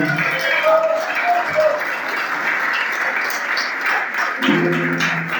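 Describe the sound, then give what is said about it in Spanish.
An audience applauds God steadily for several seconds, a dense, even wash of clapping that holds its loudness throughout, with scattered voices and brief shouts rising above it. “hay uno que es mayor, que es más grande, que es supremo, al que le damos un aplauso de entero nuestro corazón.”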